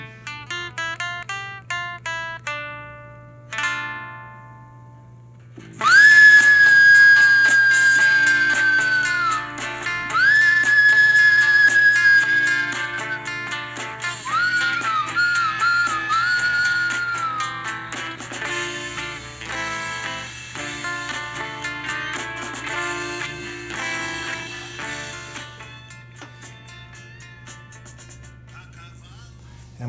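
A recorded rock song starts with a few quiet picked notes, then loud, sustained lead guitar lines with bending, gliding pitches ring out over a steady, full band accompaniment.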